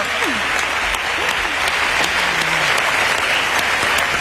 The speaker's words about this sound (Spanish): Y eso, ya de entrada, merece un gran aplauso como este. Venga, por favor. Eso.